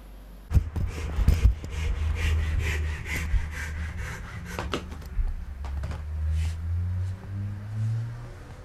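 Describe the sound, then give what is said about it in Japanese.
A handsaw cuts steadily through a small dried kuromoji wood branch, measured to size with a template and cut to length (tamagiri), with repeated rasping back-and-forth strokes and a few sharp knocks near the start, over a low background hum. “そして幼児作りまずは型で寸法を測りノコギリで切りますこれを玉切りと言います”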